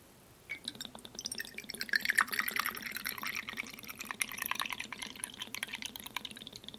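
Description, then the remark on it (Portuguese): Martini Rosso vermouth glugs out of a bottle in a steady, burbling pour lasting several seconds, with rapid gurgles and splashes at a moderate level and no talking over it. “Eu queria fazer o barulhinho aqui da garrafa, não sei se vai fazer, ó.”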